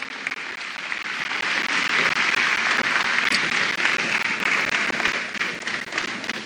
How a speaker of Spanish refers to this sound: Denles otro aplauso,